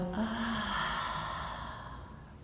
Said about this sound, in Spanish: Comienzo respirando muy profundo. Inhalo exhalo.